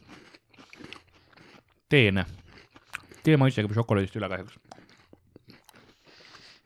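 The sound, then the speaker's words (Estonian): Crunchy chewing of a matcha-flavoured snack, soft repeated bites at the start and again near the end, with people talking in between. “vetikamass. krõmpsu”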